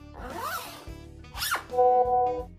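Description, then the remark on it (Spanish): Zippers rasp open in a few quick, scratchy pulls amid fabric rustling as safety suits are taken off, with a steady high whine sounding faintly underneath toward the end. “Podemos sacarnos los trajes por fin.”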